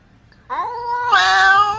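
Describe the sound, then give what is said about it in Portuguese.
A single drawn-out cat meow sound effect, loud, rising in pitch and swelling into a strained, wailing cry before cutting off, with no one talking; it marks the Gato Mestre segment. “A hora do Gato Mestre, meus amigos. Ele apareceu novamente aqui.”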